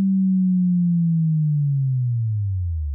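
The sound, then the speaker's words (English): A pure, steady sine tone, used as the fundamental of a sound-design boom, slides smoothly downward in pitch over about three seconds, starting as a low hum and sinking into a deep rumble, loud and alone with no other sounds. “the fundamental of most bouges are made by some sort of basic wave, a common choice being a sine wave, which has no harmonics. Then you give it a nice smooth pitch down.”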